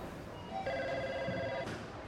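A telephone rings in a steady electronic trill lasting about a second, moderately loud against faint background room noise, then cuts off abruptly.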